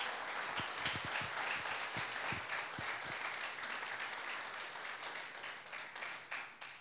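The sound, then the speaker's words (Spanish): An audience breaks into sustained applause, many hands clapping together in a dense, steady wash that stays fairly even before thinning slightly toward the end, with no one speaking over it. “Dale una ofrenda de palmas al.”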